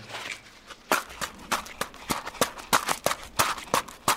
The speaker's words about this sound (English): And here's the sound on its own. It is just a guy sticking a cell phone case in some rocks that he's holding in a rag in his hand.